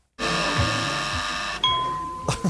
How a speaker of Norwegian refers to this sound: Og det er lyden av ti i skuddet som startet i 1965.